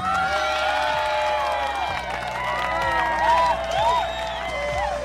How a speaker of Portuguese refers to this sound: Acertou em cheio Aplausos para o Moro!